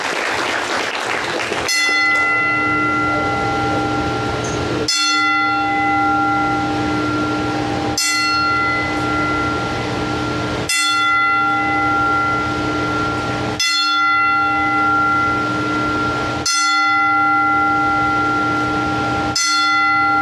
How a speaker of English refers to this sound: So, tribute to that young man, loved the sport of professional wrestling. Tonight, we are going to do a 10 bell salute in his honor.